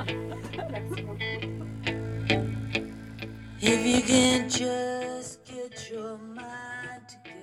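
A rock song plays from a recording, with steady drum hits, sustained guitar and bass tones, and a singing voice rising in the second half, at moderate volume throughout.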